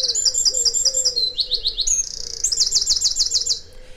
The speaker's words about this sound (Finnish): Ja nyt vielä lopuksi rentoudutaan linnunlaulukonsertissa.